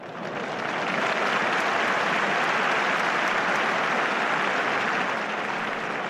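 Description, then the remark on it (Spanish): A big crowd at a bullfight breaks into sustained, loud applause, an ovation for the bullfighter Morante, rising quickly and holding steady as a dense wash of clapping for the full six seconds, with no voices standing out. “Una gran ovación para el que nos descubrió que todo sigue en su sitio.”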